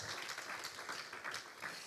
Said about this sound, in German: Hey, Gott verdient einen Applaus.